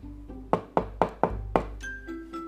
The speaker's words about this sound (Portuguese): Um dia apareceu lá por aquelas bandas o terrível lobo mau. Ele chegou perto da casa de Cícero, o primeiro porquinho, e bateu na porta.